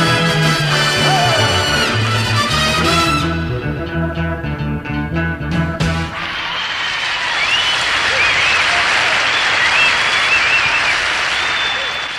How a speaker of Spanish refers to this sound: Bueno, eso a pesar de los aplausos que, que podrían simular que está en vivo, en realidad son atruchadas está grabado en estudio, ¿no?